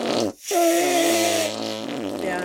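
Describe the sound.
A quick sputter, then a long, loud, buzzy armpit fart made with a hand, its pitch sliding downward in steps for about two seconds before trailing off.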